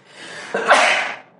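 A single sneeze: a sharp inhaled buildup followed by a loud, bright burst of breath that fades out over about half a second, with no talking.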